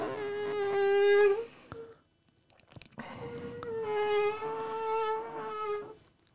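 A high-pitched mosquito whine drones in two stretches, with a short quiet gap between them. The buzzing pitch wavers slightly as if the insect is circling. No one speaks.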